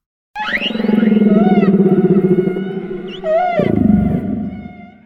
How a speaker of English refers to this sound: That sound is? A humpback whale. A humpback whale.